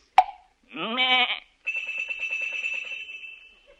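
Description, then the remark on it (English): A shepherd knocks a sheep on the head with his crook: a sharp single knock, then a short sheep bleat, followed by the sustained, bright ringing of its bell, tuned to a chromatic scale, with a fast pulsing flutter that slowly fades; no talking. “a lot of sheep have bells, for these sheep are tuned so as to make the chromatic scales which he make use of by knocking the sheep on the head with his crook, a signal to them to ring the bell.”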